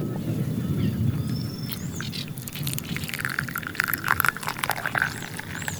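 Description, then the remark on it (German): Coffee is poured into another container in the Pantanal, a steady, continuous splashing stream of liquid lasting several seconds, while a few high bird chirps sound faintly in the background. “Ich fühle mal kurz den Kaffee um.”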